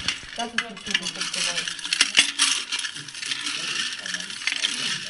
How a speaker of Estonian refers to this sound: kommide valamist klaasidesse kuuleb aga ainult seestpoolt.